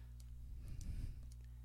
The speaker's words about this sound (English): Oh, it's my pen. Sorry. I can hear something What's clicking. That clicking noise.